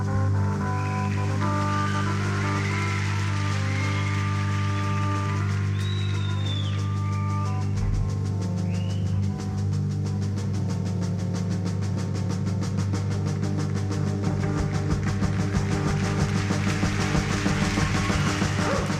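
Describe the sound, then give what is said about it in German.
A live rock band plays loudly in a concert opener recorded in Osaka on 16 August 1972, opening with sustained droning chords that swell and build, then breaking into a dense, driving full-band sound that continues without pause and without any talking. “Und hier kommt der Opener, aufgenommen am 16. August. August 1972 in Osaka, ….”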